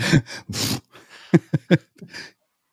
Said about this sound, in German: Das ist mein Hund. Ja. Der niest gerade die ganze Zeit. Hörst du das?